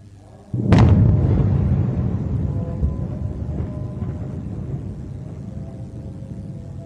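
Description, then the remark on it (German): A single loud explosion with a flash bursts out suddenly, followed by a deep rumbling boom that slowly fades and lingers across several seconds, with no voices present. “and then periodic loud explosions and flashes.”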